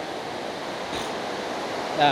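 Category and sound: nature, rain falling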